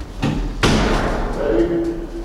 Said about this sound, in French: La porte est ouverte.